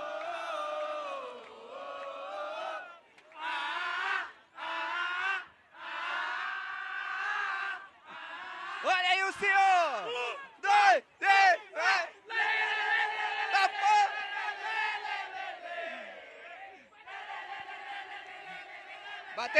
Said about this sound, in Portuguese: E agora a gente tá aqui na fila do garantido, mano. A galera aqui empestada de gente, mano. Animadíssima, mano. Bora ver o barulho da torcida.